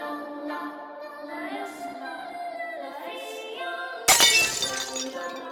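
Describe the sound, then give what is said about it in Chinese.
Over a steady, layered tonal drone, an oil lamp on a wooden table is knocked over by someone stepping backward and its glass suddenly shatters in one loud, bright crash, followed by a second or so of tinkling fragments fading out. “他浑身站立着，一步一步后退，碰倒了放在木桌上的油灯，牛皮纸沾染火星，悄然滑落，然后在他的视线里化作一团焦黑的灰烬。”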